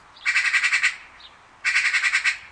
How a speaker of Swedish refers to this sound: Av anledningen till att, för det första, det går för fan inte att, att härma en skata. Så här lät ju en skata då.